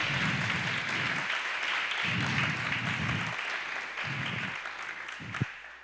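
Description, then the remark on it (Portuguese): A church audience claps steadily together in applause for Jesus, a dense wash of applause lasting several seconds, with a few brief low thumps and murmurs rising underneath. “A igreja deu um aplauso para Jesus bem lindo que é para ele.”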